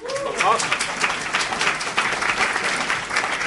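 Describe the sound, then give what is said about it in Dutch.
Steady audience applause for the guest Jean-Paul van Bendegem, many hands clapping in a dense, continuous wash at moderate loudness, with a brief voice audible at the very start. “Ja, een applaus mag.”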